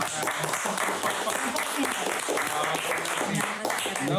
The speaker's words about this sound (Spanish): mis respetos, amigo. Lo, lo que haces y, y cómo lo haces merece un aplauso muy especial.